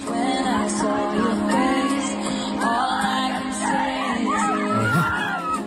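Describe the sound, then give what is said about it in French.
A dense crowd of concert fans sings loudly together, voices blending into a continuous roar with occasional screams rising above the steady, full sound. “Hein, c'est des fans qui chantent bien en plus.”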